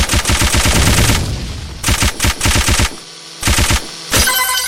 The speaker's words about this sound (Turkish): Speed machine gun. İnşallah Machine gun.